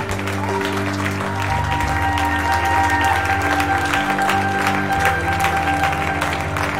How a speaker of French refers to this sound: On va ensemble acclamer le Seigneur, faire monter des, des chants, des cris. Amen.